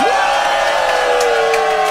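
A loud concert crowd in Paris cheers and whoops continuously, with high sustained shouts and a dense roar of many voices throughout.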